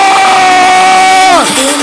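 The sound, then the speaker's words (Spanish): A loud, sustained group shout of people yelling with all their heart to celebrate success rings out together, held on one pitch for over a second before dropping off sharply at the end, like a crowd yelling and cheering in unison. “¡Hagan ese grito!”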